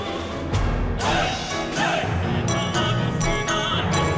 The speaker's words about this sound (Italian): Stiamo passando attraverso la festa e sentiamo tutto sovrapposto. Questa musica che sentite ai pianoforti e poi la musica del finale.